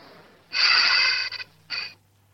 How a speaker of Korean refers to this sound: 자, 우리 아내가 숨소리만 들어도 알 거라고 자신을 하셨잖아요. 그쵸? 예. 예, 먼저 숨소리부터 한번 들어봅니다. 자, 숨소리 들을게요.